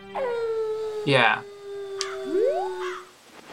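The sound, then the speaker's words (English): A video game wolf howls in a long, steady tone that dips and then slides upward, loud, while a person briefly speaks over it, as in-game time speeds up. “And like it doesn't do a hard transition it just speeds up time for time becomes really really fast for like uh, uh, some duration so you can hear the wolf howl and the chicken”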